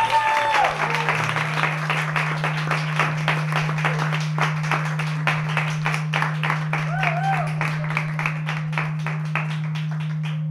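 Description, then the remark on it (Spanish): An audience at a party with artists claps steadily for about ten seconds, dense overlapping applause with crisp individual claps standing out, over a constant low hum, with brief voices and a few whoops early on. “Aprovechando que bajan las palmas y que os pedís unos, unos quintillos”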